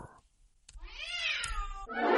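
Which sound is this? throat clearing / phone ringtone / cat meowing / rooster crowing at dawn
cat meowing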